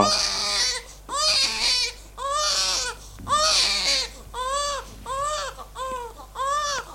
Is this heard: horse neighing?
no